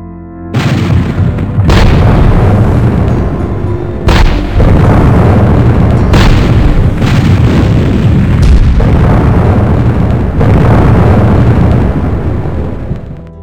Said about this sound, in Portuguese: Mas no amanhecer do dia 1 de outubro, a artilharia bombardeou a área ocupada pelos conselheiristas, com 300 disparos em 20 minutos, uma média de 15 projéteis por minuto.